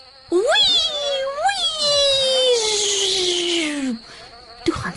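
A voice imitates the buzz of Veronica Vlieg, a fly flying back and forth a few times over a compost heap: a loud whining drone that swoops up and down a couple of times, then slides slowly lower for about four seconds before stopping.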